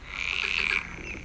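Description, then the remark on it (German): A dense chorus of frogs croaking together, a continuous overlapping trill that thins out toward the end. No voices. “Meist quakt ja auch nicht nur ein Frosch, sondern es ist ein richtiges Froschkonzert zu hören.”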